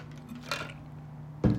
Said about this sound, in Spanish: Espera, déjale hecho un, traguito a mi proteína.